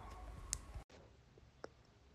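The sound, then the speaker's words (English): A phone call line crackles with static and sharp clicks, then drops abruptly to a brief silence before a thinner, quieter hiss resumes with a couple of faint clicks, as the phone call cuts out. “Sorry, the phone is calling out. Can you hear me now?”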